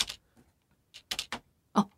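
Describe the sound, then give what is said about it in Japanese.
Computer keyboard keys being pressed in a few quick, irregular clicks and short clusters, fairly close and crisp, with one heavier keystroke near the end and no voices. “まあまあちょっと意識してあの押すようにしますキーボード”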